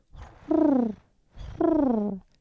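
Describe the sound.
A person imitates a dove's soft murmuring coo twice, illustrating the word 'curr', each a low, throaty, rolling call with a breathy lead-in, moderately loud, with a brief pause between them.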